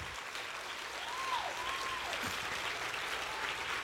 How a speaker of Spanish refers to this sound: Pero si ese es el aplauso, déselo. Déselo. Déselo bien.